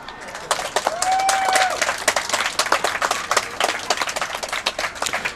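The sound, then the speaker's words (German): A large audience applauds as someone goes onto a stage, a steady dense patter of many hands clapping at once, with a brief high whistle rising above the crowd early on. “Und äh, als du auf die Bühne gehst, äh, bekommst du einen großen Applaus.”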